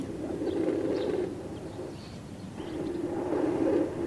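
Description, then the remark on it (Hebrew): Muffled, whooshing static from a fetal Doppler monitor, used to listen for a fetus's heartbeat during a prenatal examination, sweeps in two long swells separated by a brief dip, a low rumbling hiss with no clear heartbeat rhythm. Nobody speaks. “זה מכשיר הדופלר שלי, איתו אני שומעת את הדופק של העובר.”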